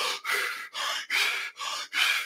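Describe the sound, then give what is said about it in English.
A demonstration of Wim Hof breathing: six rapid, forceful breaths in quick succession, each a loud, airy rush, with a steady, pumping rhythm of deep breathing and no talking. “and you'll also notice that if you do a lot of Wim Hof breathing, like extensive breathing, where you just do the”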